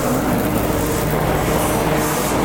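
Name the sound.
subway train running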